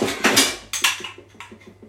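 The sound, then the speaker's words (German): Blender attachments clatter and knock together as someone looks for the right attachment: a few loud rattling clunks, then a quick series of lighter clicks and taps as hard pieces are shuffled around. No one speaks. “Dann brauche ich nur noch den richtigen Mixeraufsatz. Ist es der da?”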